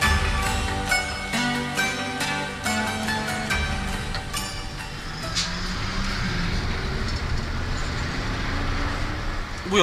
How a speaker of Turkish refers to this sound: Şu hale bakın. Boğaz Köprüsü nasıl sıkışmış. Trafik kilitlenmiş adeta.